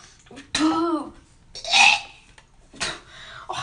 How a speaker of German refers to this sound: Digga, ich muss würgen, wie ein Schwein. Du, jetzt komme ich schon die Tränen, Alter, schnell.